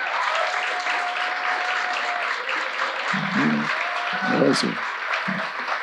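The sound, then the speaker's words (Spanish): A church audience claps steadily in recognition of its pastors, a dense, continuous wash of applause lasting several seconds, with a few voices calling out and murmuring underneath and a brief high whistle-like cheer near the end. “Entonces yo creo que ellos sí merecen un muy buen aplauso de reconocimiento hoy y les felicito.”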